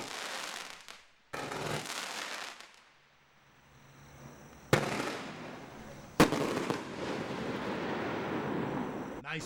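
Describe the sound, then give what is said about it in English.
Loud booms go off at the end of a firework cake, two sharp blasts a couple of seconds apart, each followed by a lingering crackling rumble of bursting shells. “booms at the end there.”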